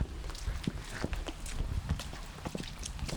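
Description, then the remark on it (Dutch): Heavy footsteps trudge through wet, muddy ground by a ditch after heavy rain, nearly slipping, a steady series of squelching, thudding steps with a soft background hiss and no talking. “Zo, even een klein ploeteren.”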